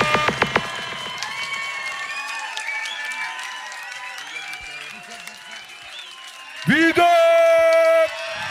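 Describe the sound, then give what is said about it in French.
A crowd at a show in Paris claps and cheers steadily for an improviser, with a few sharp claps at the start and scattered whistles and shouts. Near the end a loud, held tone briefly rises over the applause. “Yo Panam, Faites un maximum de bruit pour le meilleur improvisateur de l'Ouest.”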